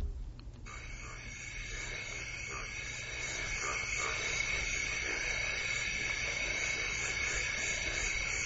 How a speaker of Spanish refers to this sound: Rana, sapo, verde. Muy bien, Santi, tienes el oído.